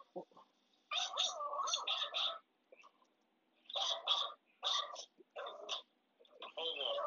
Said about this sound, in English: Cuzo got the dogs. He got to fix that, though. I can't talk over no barking